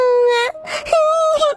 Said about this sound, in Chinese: 啊！万迪被这哭声吓了一跳，仔细一看，这哪是小花呀？原来是一个小海葵呀！